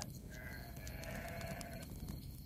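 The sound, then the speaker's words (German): A sheep from a sleeping flock nearby lets out one drawn-out, wavering bleat at moderate volume on a moonless night, set against a steady low outdoor rumble, with no voices present. “Du atmest tief ein und riechst alle Düfte des Grases, der Wildblumen, der Erde und der schlafenden Schafherde in der Nähe.”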